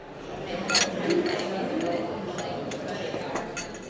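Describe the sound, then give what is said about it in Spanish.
Crowded café on the Gran Vía in Bilbao, Spain, where coffees and wines are being served, with a steady murmur of indistinct voices and repeated sharp clinks of cups, glasses and dishes scattered throughout, some bright, others softer. “el matrimonio formado por la ibarresa … y el pamplonés … no da abasto sirviendo cafés y vinos”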